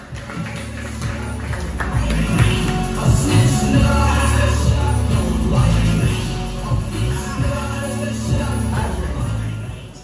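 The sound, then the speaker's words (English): A comedy show audience claps and cheers loudly and steadily for about ten seconds as the next comedian is brought to the stage, a dense wash of applause that swells in the middle, with what sounds like music playing underneath. “The way you guys start clapping your hands right now. Make some noise for the very funny”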